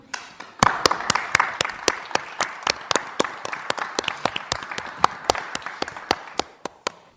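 Applause from a studio audience welcoming two guests onto a broadcast's set, a dense wash of many hands with sharp, fairly regular individual claps standing out on top, steady and moderately loud for about six seconds before tapering off, with no talking.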